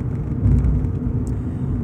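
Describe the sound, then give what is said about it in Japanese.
A steady, low rumbling hum of a car engine and tires on the road, heard from inside the vehicle, continuous and fairly loud with no voices over it. “だからねこのブーンっていう感じをねもう一緒に車に乗っている感覚をやっぱ表現するとなるとノーカットが一番いいんじゃないかなっていうこじつけですね”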